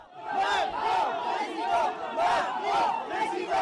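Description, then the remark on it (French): Pro-Emmanuel Macron activists at a market chant slogans in unison, many voices shouting a steady, rhythmic phrase over and over with loud regular pulses and no break. “Un bain de foule perturbé par des militants pro-Emmanuel Macron présents sur le marché.”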